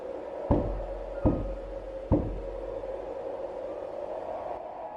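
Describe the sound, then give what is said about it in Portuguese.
Three firm knocks on a door, evenly spaced about a second apart, sounding solid over a steady low hum, then only the background drone continues. “E nisso, vocês escuta uma batida na porta.”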